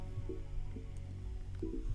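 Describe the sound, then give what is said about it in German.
A water dispenser in a room with chairs and barred windows fills a paper cup, with a steady low rush of flowing water and a few soft gurgles and glugs, with no talking. “Ich würde mal den Wasserspender ein bisschen trinken. Ja, kriegst Ellie. Wasser heraus.”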